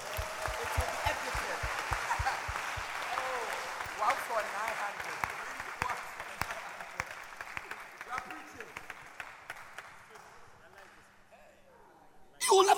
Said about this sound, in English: Can you clap your hands for Jesus?